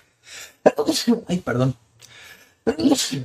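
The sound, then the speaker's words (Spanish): A sharp, close sneeze follows a quick breathy inhale, and then a person speaks briefly, apologizing in a soft voice. “Ay. Salud.”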